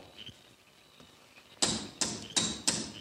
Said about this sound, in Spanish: ¡Eh! ¿Qué es eso? ¿Quién canasto está golpeando la puerta?